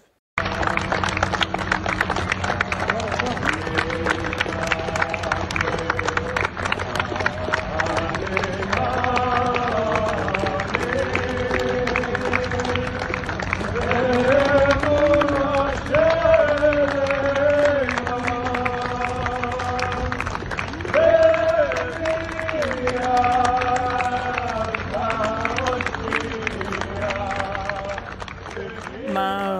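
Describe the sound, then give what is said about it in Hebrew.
A Jewish crowd in Miami sings a steady, rising and falling melody together for about half a minute, while two rows of American rescuers clap for the State of Israel, the rhythmic clapping running underneath at an even, loud level throughout. “חיבור של אה, קהל יהודי שנמצא מסביב ושר, אה, שתי שורות של מחלצים אמריקאים שמוחאים כפיים למדינת ישראל.”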